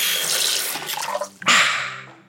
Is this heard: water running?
yes